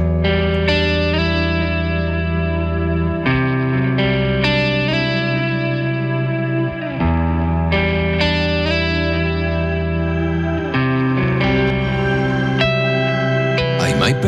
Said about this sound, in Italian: però prima ascoltiamo il suo ultimo singolo uscito da poco,